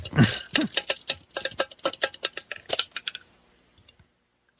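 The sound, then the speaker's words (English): Dice are rolled from a plain, ordinary cup, rattling and clattering inside it in a dense burst of sharp clicks for about three seconds that thins out to a few scattered taps before stopping. Fairly loud, with no talking. “I sure as hell hope I roll good on this. I'm not using my traditional post-apocalyptic paper tube tower here. I'm just using a normal, boring cup.”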